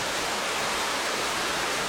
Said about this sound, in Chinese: 我们体会、体会到水这瀑布所带来的力量、生命的力量。